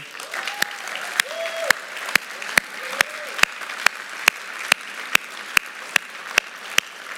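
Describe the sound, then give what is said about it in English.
An audience at Stonegate applauds its mothers, a steady wash of clapping with one sharp, evenly spaced clap cutting through about twice a second, plus a few faint murmuring tones underneath. “So, in light of that, can we just give them an applause there where they are?”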